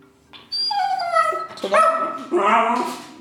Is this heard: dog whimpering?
yes